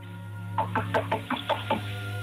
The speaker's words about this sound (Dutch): Oké, we kloppen nu op de deur.